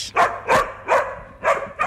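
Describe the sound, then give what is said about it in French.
A female search dog barks about five times in a steady, insistent rhythm during a search training exercise, signalling that she has found the person playing the victim; each bark sharp, with short gaps between them and no talking. “Maria doit aboyer pour signaler qu'elle a trouvé.”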